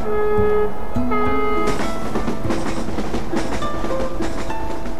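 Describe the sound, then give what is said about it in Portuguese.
A train passes on the railway line crossed on the way to the Rio Bom neighbourhood, loud and continuous, with a high, steady tonal whine at first giving way to rattling, clattering rumble from the cars. No one speaks. “Depois há um caminho estreito, até chegar à linha de comboio onde é preciso ignorar o sinal que diz proibido atravessar.”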